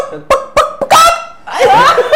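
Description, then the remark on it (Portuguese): A person imitates a chicken, with a few short, sharp clucks followed by longer, loud squawking cackles, with no other talking. “É, eu sei imitar uma galinha.”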